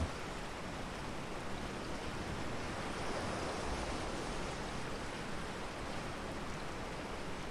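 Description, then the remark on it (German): Steady, dense rain pattering continuously on the hood of weatherproof clothing, with a broad rushing wash of howling wind behind it, holding an even, fairly loud level throughout with no voices. “das Plätschern der Regentropfen auf deiner Kapuze und das Heulen des Windes umgibt dich wie eine vertraute Melodie und lädt dich ein, dich vollkommen der wilden Schönheit dieses Momentes hinzugeben.”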